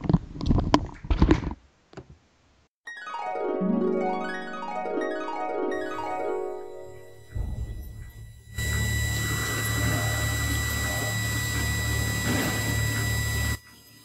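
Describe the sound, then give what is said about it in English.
A person urinating while wearing headphones: after a few clicks and a warbling, wavering tone, a steady hissing stream of liquid runs for about five seconds, then stops abruptly. No one speaks. “Hey, are you taking a fucking piss with your headphones on?”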